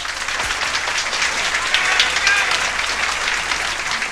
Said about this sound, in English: At this time, we'd like to begin our second show of the evening by presenting our MC. Let's have a nice round of applause for Sterling Moss.